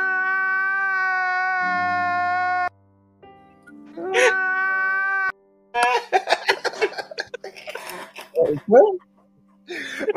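person crying

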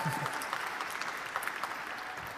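audience applause

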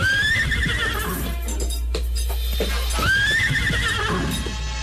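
horse neighing and hooves

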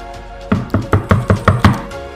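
knocking on a door

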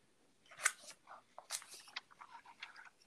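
scissors cutting paper

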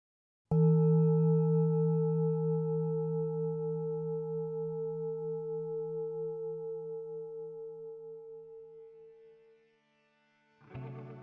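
gong being struck

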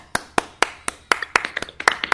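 hands clapping

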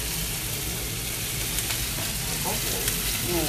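meat sizzling

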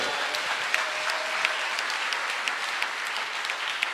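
audience applauding

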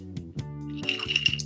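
glasses clinking

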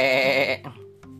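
goat bleating

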